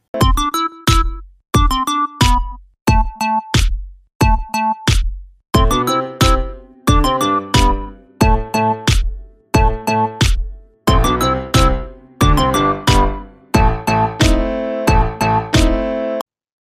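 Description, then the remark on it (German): An instrumental intro jingle of bright, bell-like chords struck in a steady rhythm, each ringing briefly before the next, growing fuller and busier toward the end, with no voices. “Und ja, das alles hören Sie wie immer nach dem Intro.”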